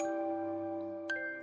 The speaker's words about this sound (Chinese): 叮咚，叮咚。过了一会儿，门铃又响了。